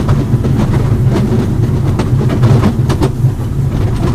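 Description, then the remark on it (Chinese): A small Wulai rail trolley car rolls steadily along its tracks in Wulai toward Waterfall Station, the terminus, a continuous low rumble with scattered metallic clicks and clacks from the wheels, without any talking. “所以在乌来当乌来台车有运用这样子”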